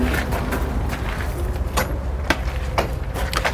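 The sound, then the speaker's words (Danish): A door at an allotment garden association is pulled shut with a few sharp clicks and knocks from the latch and handle, over a steady low rumble of outdoor background noise. No one speaks. “Jeg vil lige lukke døren.”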